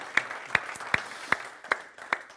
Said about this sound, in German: Ähm, und für alle, ja, lass mal einen Applaus da.